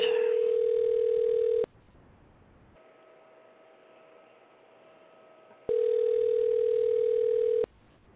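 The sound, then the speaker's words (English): Ringback tone of an outgoing phone call: two steady, loud two-second rings separated by a roughly four-second pause, with faint line hiss in between and no voices. “This one's not answering”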